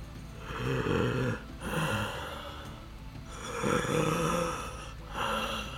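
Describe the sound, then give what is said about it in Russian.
A person mimics the heavy, rasping breathing of a monster door mimic: about four long, loud, drawn-out breaths in and out, with a snore-like growl and no talking. “Вы так дышите, будто бы вам нужно только одно.”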